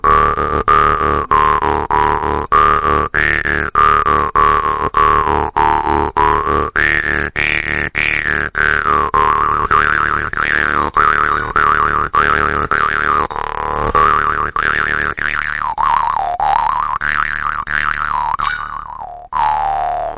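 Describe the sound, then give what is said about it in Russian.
An Uzbek jaw harp (chankomus) twangs steadily in a loud, continuous rhythmic pattern, its buzzing drone shifting in pitch as the melody wavers, with no voices present. “Там же также представлены варганы, такие как в Узбекистане чанкомус, который звучат так, например.”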